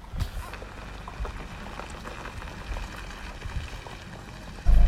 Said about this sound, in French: Ah mince, faut que je démarre la voiture pour euh, ouvrir la fenêtre. Vous allez entendre des sabots. On entend ou pas